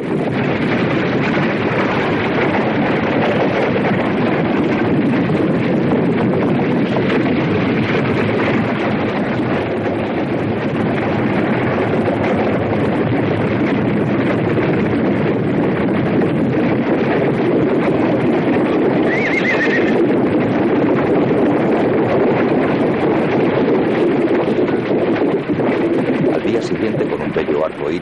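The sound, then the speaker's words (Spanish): A steady, loud storm roars throughout, with strong wind rushing and buffeting in a dense, continuous wash of noise that never lets up. “Más tarde estalla una tormenta.”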